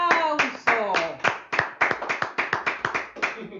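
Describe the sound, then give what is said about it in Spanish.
Audience applause: a run of loud, sharp claps that starts steady and quickens into a faster patter, with a voice briefly audible at the start. “¡Un aplauso!”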